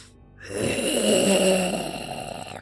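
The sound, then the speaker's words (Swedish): A skeleton creature raising a hand gives a raspy, rattling wheeze that rises after a brief silence and holds steady and loud for about two seconds, like a drawn-out throaty breath, with no talking. “Skelettvarelsen reser en hand mot er och ni hör ett rosslande.”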